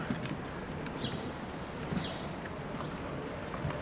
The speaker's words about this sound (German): Vögel, die mir gar nicht zuhören und Knistern meiner Füße.